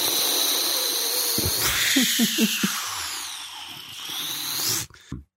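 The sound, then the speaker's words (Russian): A voice imitates a typical noise ambient project track: a dense, steady hiss with whining high tones, broken by a few short low groaning pulses, then cut off abruptly with a brief final burst. “Ну, типа, может, может, какой-нибудь шлягер напеть. Ага, да. Ну, э, типичный шлягер для Noise Ambient проекта.”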